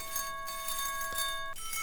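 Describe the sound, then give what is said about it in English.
A synthesizer's large chime resonator preset rings with bright, bell-like overtones, holding steady for about a second and a half before cutting off. It plays alone at a moderate, even level, with no voices. “You can go nylon string, or excuse me, metal string to nylon string, gut string, small chime, medium chime, large chime,”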